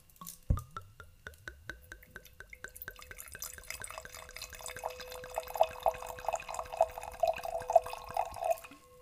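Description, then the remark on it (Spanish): Wine pours into a wine glass during a tasting, a steady gurgling trickle, its ringing pitch climbing gradually as the glass fills over several seconds. No voices are heard. “Poné la copa acá. Ah, para. Para los ASMRs.”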